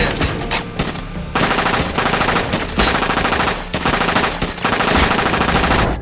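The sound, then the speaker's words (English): Sustained bursts of loud M249 light machine gun fire rattle in long rapid strings, broken by a few brief pauses, with no talking over the shooting. “you 249. You want to be loud. I don't care how loud it is. Get those tangos off our six.”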